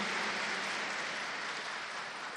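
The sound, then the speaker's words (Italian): Steady, dense applause from an audience at an event about Dante, welcoming Luca Serianni, a jury member, a continuous crackle of many hands clapping at an even loudness for a couple of seconds, with no voices on top. “Luca Serianni, uno dei componenti della giuria, qui l'applauso deve essere particolarmente caldo da parte vostra”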